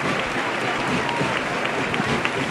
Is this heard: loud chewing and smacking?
no